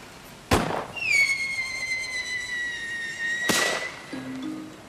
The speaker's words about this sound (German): Ab und zu schießt Ulf Moos auch einen Böller ab